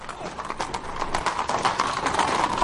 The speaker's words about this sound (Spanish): Varios soldados a caballo los persiguen.